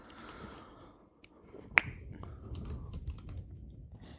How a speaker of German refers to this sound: Klick, klick, klick. Also, solange Armin googelt